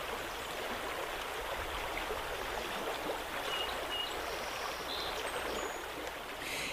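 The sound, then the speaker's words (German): Steady babbling of river water, a continuous splashing and gurgling rush with no pauses and no voices, holding an even loudness throughout. “Oder sehen Sie vielleicht die hohen Berge, hören das Plätschern eines Flusses, genießen Sie die Natur?”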